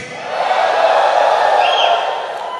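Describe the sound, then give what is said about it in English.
A large crowd screams and cheers together in response to a call to scream, a sustained, loud roar that swells and holds for a couple of seconds, with no single voice standing out. “Let me hear you scream.”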